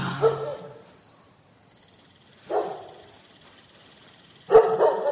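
A dog barks three times at uneven intervals, each bark sharp, with the last one loudest and followed by a brief rough trailing yelp, quiet gaps between them.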